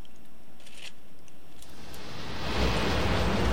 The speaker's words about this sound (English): Give you a little feel of rain, huh? Haven't had that feeling too much.